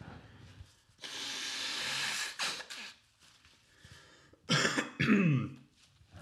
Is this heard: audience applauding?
no